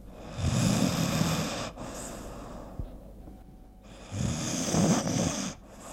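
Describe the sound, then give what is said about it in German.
Two long, rasping snores from a deeply sleeping person, each a loud rattling inhale with a quiet pause between them, clear with no talking. “wie ist denn das jetzt mit dem Tiefschlaf, Anita? Du hast vorher gesagt, die denkt man. Richtig. Und der Schlaf tönt bei vielen so.”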